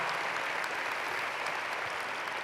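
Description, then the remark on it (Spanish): Steady audience applause for the speaker's wife, a dense wash of many hands clapping at an even loudness throughout, with no voices rising above it. “tal si le damos un aplauso a esta mujer, mamá?”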